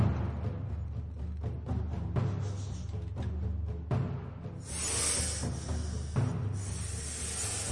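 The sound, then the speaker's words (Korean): A snake's hiss, as the snake creeps up on a young tree frog, rises over a low, steady musical bed, a bright breathy sound that swells in the second half and holds for a few seconds, moderately loud. “그러는 것처럼 쉬, 쉬 소리를 내면서 아들 청개구리한테로 가까이, 더 가까이 다가갔어요.”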